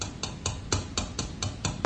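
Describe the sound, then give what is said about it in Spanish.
A steady series of sharp, light taps, about nine in two seconds: the fingernails of a tall figure standing on a window ledge rapping on the window glass, like hail. Fairly quiet, with no voices. “Son sus uñas las que producen ese ruido, como de granizo en los cristales, ahora que el granizo ha dejado de caer.”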